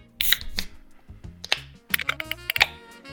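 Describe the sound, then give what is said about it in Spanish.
A 500cc can of Carlsberg lager beer being opened: a series of sharp metallic clicks and taps, with brief hissy bursts around the crack of the tab, no voices present. “Así que antes de empezar a hablar acerca de la cervecería en sí, te voy a invitar a abrirla. Estamos, Vamos a probar el formato lata de 500cc.”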